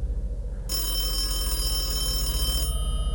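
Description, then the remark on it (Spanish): A telephone bell rings continuously in a single long burst, bright and fairly loud, stopping abruptly after a couple of seconds over a low steady hum. No one speaks. “El teléfono sonó y sentí algo en mi pecho, dolor, porque sabía lo que me iban a decir.”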